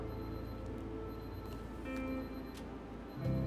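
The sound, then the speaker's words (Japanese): A timer going off, heard as faint, steady ticking with a few soft tonal beeps over a low background hum, with no voices. “タイマーなってますね 入ってるかわかんないけど ちょっと消していきますね”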